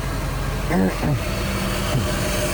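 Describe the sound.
A car engine rumbles steadily as the vehicle slowly backs up to park next to a truck in a parking lot around 7 a.m., with a couple of brief voice fragments rising over the constant low hum.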